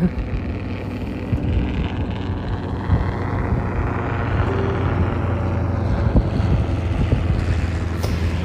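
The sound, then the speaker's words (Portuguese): A helicopter drones overhead, its steady low rumble and rotor hum holding for several seconds amid a wash of wind-like noise, with no one talking. “E assim como esse helicóptero, se teu pensamento voar ou foi para outro lugar, volta para cá.”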